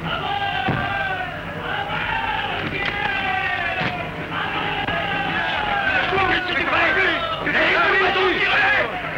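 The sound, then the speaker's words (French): A dense, agitated crowd storming the Tuileries palace in the sound version of an Abel Gance film shouts and roars continuously, many overlapping voices yelling at once, loud, with a chaotic surge of noise that swells toward the end. “Les Suisses ont tiré La foule a envahi les Tuileries”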